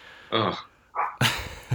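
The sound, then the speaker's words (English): A dog barks several times in quick, uneven bursts, fairly loud, with a short pause between the first barks and a sharper cluster near the end. “Sorry, my dog is driving me crazy.”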